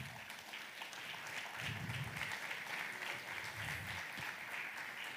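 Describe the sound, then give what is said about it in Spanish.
A church audience applauds at the pastor's call in a steady, dense wash of many hands clapping, sustained at an even level for several seconds with a faint low rumble of voices beneath. “Vamos, vamos, ese fuerte aplauso.”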